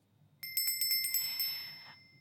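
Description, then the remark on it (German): A small bell rings rapidly several times in quick succession, bright and metallic, then its tone lingers and fades out over about a second, with a faint low hum underneath. “Dabei wurde Hunden über einen längeren Zeitraum zur Fütterung ein Glockenton vorgespielt.”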